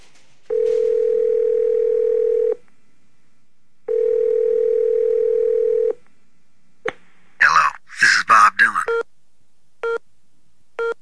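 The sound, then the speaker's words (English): A telephone dial tone hums at a steady low pitch in two long bursts separated by a pause, followed by a brief jumble of garbled, voice-like sounds and a few short, clipped beeps. “Tonight we're going to reach out and touch someone with the telephone.”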